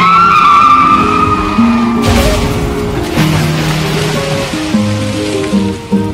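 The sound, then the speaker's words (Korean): A passenger car's engine and tires squeal loudly as it skids off a coastal road in Ulsan, South Korea, at about 2:26 a.m., then a sudden crash at about two seconds as it falls about 3 m to the shore gives way to rushing, churning water and scattered debris sounds that continue to the end. “오늘 새벽 2시 26분경 울산시 해안도로를 따라 달리던 승용차 일대가 도로를 벗어나 약 3m 아래 해안으로 추락했습니다.”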